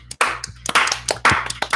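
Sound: one person clapping hands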